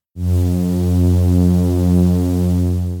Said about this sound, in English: Here's his emulation of an idling projector, which he made on a synthesizer.